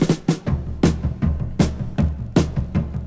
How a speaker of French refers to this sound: Je me suis offert une batterie. Écoutez-moi ça.